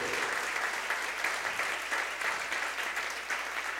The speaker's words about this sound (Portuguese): A igreja pode aplaudir o Senhor?